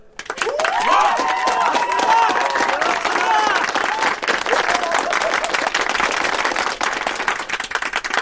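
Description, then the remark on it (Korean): A crowd bursts into sustained applause at the founding of the new nation, the Republic of Aronia, dense rapid clapping filling the whole stretch, with cheering voices and a few whoops rising above it near the start. “박수와 호론 속에 강하고 새로운 국가 아로니아 공화국이 시작됐다.”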